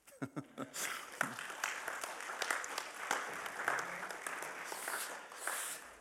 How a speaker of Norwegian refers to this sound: Nå kan jeg klappe for dem.